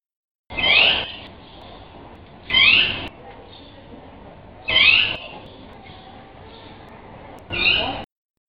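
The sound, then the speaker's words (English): A jaguarundi gives four bright, bird-like chirping calls spaced a few seconds apart, each sharp and fairly loud, with quiet background between them. “It sounds more like a bird than a cat, but I promise you, that's a jaguarundi.”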